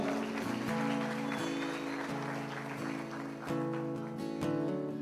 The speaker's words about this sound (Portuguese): Dê uma salva de palmas ao Senhor.